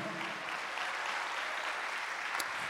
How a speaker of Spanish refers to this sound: Dale un aplauso al Señor, a su nombre, gloria.